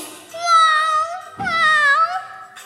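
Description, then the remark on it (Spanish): A voice imitates a cat's meow twice in a row, two drawn-out, sweet, tonal calls with gently gliding pitch, fairly loud, with no other talking. “Tanto le gustó la voz del gato a la ratita que se enamoró de él”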